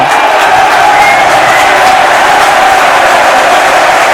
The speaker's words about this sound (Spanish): Ahí está. El Coliseo aplaudiendo. Todo el mundo quería una tarjeta, ya la tenemos.